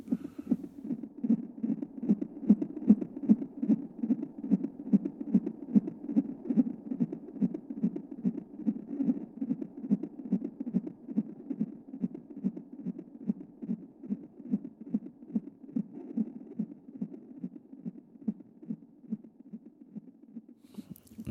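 A recorded pulse from inside a baby's brain: a fast, steady, muffled throbbing whoosh repeating about twice a second, low and continuous for the whole stretch, with no voices.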